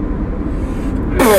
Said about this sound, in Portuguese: Tu espirrou pela boca. Não é pelo nariz que se espirra.